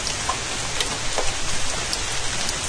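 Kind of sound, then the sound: nature, light rain falling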